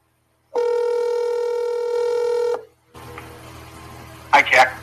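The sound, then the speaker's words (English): A steady telephone tone holds for about two seconds as a call is placed, then cuts out, leaving a hiss of line noise before a couple of short, bright dialing beeps near the end. “I'm going to go ahead and call you.”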